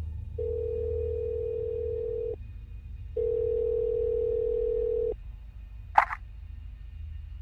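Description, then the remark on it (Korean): A telephone ringback tone sounds twice in steady two-second bursts with a pause between, over a low background hum, as a call is placed to a landlord, followed by a short click as the call connects. No one speaks. “아내 역시도 집에 정을 붙이기 힘들어하는 것 같기에 집주인에게 전화를 했다.”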